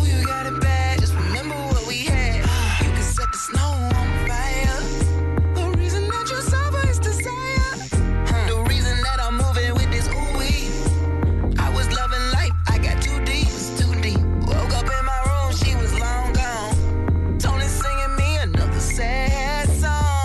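A song plays at full volume for about twenty seconds, with a male singing voice over a steady beat, deep bass and layered instrumentation, and no talking.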